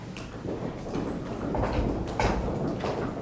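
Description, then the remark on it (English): Several heavy thuds of a foot stomping on a floor during a stretching exercise, the foot released down on an exhale, coming in an uneven rhythm at moderate loudness with no talking over them. “And with your exhale, release the foot down and just stomp it out.”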